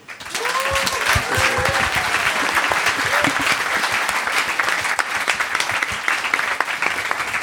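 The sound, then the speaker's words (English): A large audience breaks into sustained applause for a panel, dense overlapping claps at a steady, loud level, with a few faint voices and whoops mixed in early on. “Well, listen, let's give our panel a huge hand.”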